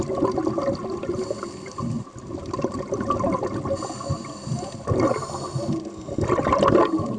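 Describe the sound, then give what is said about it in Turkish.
Dense, muffled underwater ambience in the sea off Antalya, Turkey, where Turkish Underwater Federation divers dive to document pollution, with continuous rushing and bubbling, swelling into stronger bursts of bubbles now and then, as if from divers breathing. No voices are heard. “Bu sualtı görüntüleri Antalya'dan.”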